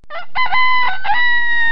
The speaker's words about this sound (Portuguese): E num certo dia, o galo cantou